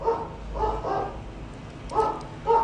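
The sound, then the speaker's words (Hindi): A dog, Rani, barks about four times in short, irregular bursts, moderately loud, with brief pauses between the barks and no voices. “सुबह सवेरे हम रानी को चेन में बांध कर घुमाने ले जाने लगे”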